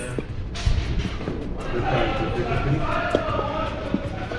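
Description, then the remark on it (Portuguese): A man, the mayor's son, shouts agitatedly at the door of the municipal council chamber, his raised voice carrying over a steady murmur of crowd noise and commotion, with no clear words coming through. “Exaltadíssimo, gritando para todo lado aqui.”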